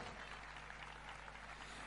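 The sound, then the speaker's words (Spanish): A gala audience in Candelaria applauds steadily for the full two seconds, a dense, even wash of many hands clapping with no voices breaking through and no rise or fall in loudness. “Fuertes aplausos para ellos también.”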